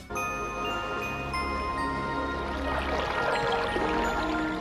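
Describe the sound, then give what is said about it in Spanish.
Steady rushing, splashing water of the Chipitín waterfall falling into a spring grows fuller in the second half, with sustained tonal music playing over it throughout; no one speaks. “El oso encuentra el manantial que forma la caída de la cascada Chipitín.”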